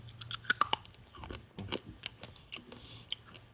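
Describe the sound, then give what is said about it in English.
Crisp chewing of a hard, brittle stick of gum from a pack of 1989 Topps baseball cards, with sharp cracking crunches early on followed by steady, wet mastication noises, no talking. “Let me, get the, me get the gum here.”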